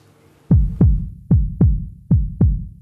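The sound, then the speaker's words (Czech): A human heartbeat thumps out three steady lub-dub beats, each a pair of deep, loud thuds, with nothing else around them. “Zvuk, který znamená život.”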